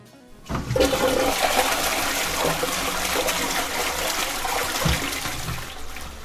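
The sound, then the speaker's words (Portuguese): A toilet flushes, a loud rushing swirl of water that kicks in sharply and churns steadily for several seconds before starting to ease off, with no voices. “Pronto, é assim mesmo, tem que jogar privada abaixo e com sorte rezar para que não tenha que jogar alguma coisa para desentupir, alguma coisa assim, porque o lixo é, é brabo.”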